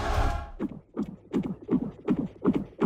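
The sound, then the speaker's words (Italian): A fetal heartbeat from a phone app, at 15 weeks and one day, plays through a small phone speaker, a fast, steady train of soft whooshing thumps, about eight in quick succession after a brief rustle at the start, with no talking. “Mi fai sentire ancora il cuore del bambino”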